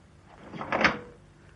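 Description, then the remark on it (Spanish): A door is shut and locked with a key, with a single muffled, rattling thud that swells and fades within about a second, with no voices around it. “Eh, creo que será mejor que cierre la puerta con llave.”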